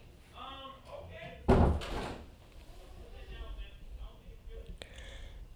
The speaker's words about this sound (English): Please close your door.